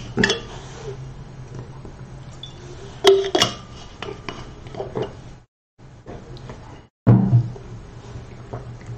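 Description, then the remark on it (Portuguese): Glass and dishes clink and tap a few times over a low steady hum while someone drinks water, with short silent pauses and a sharper knock near the end. “Você que está assistindo aí, se você tiver é, alguma pergunta agora, enquanto eu tomo água.”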